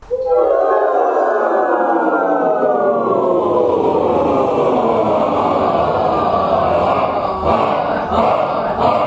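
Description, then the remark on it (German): A choir warming up in the first minutes of a rehearsal, in a room on the upper floor of the Gewandhaus concert hall in Leipzig on a grey November evening, many voices holding sustained tones and sliding together in long, siren-like pitch glides, loud and continuous throughout with no speech. “Eine Chorprobe klingt in den ersten 15 Minuten immer so”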